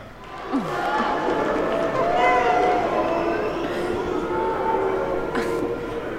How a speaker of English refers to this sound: didn't know the crowd heckled people who didn't sit down in time. I don't have any memories of that, but you know, French people like to do that, you know?